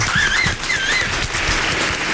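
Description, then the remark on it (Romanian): Steady, dense applause for Hagi fills the whole clip, with a few high, wavering whistles rising above the clapping early on. No one speaks. “Da, deci uh, încă o dată aplauze pentru regele nostru a tuturor Hagi”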